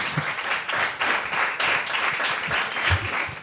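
An audience applauds the six podcasters on stage, many hands clapping in a dense, continuous patter of bright, crackly bursts that holds at an even level throughout.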